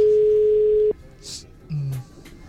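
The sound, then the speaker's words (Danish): A telephone line tone holds steady for about a second, then cuts off; after a short pause a brief, lower buzzing ring tone sounds, clear as if heard through a handset, as someone places a phone call. “Stop bare, bare mens øh, du ringer op, ikke?”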